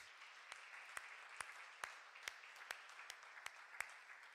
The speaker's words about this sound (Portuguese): Dê uma salva de palmas para Jesus.